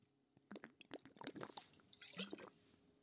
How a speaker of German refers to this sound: Ich muss noch einen Schluck Wasser trinken, Moment.